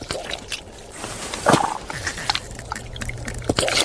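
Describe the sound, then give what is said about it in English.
Wet, irregular squelching and gurgling from giant earthworms moving through water-filled burrows, stirred into activity by the vibrations of footsteps, with soft pops, sucking noises and one louder burst over a faint low rumble; no voices. “Those gurgling noises, believe it or not, are being made by giant earthworms as they squelch along their water filled burrows.”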